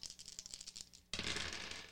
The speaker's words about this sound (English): Roll your dice.